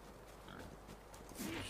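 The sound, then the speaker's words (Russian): A pig in a video game grunts and oinks in short, snuffling bursts over a low ambient background as the player goes hunting pigs for meat, ending with a slightly louder, rising oink. Faint overall, with no one talking. “Сейчас пойду охотиться за свинками.”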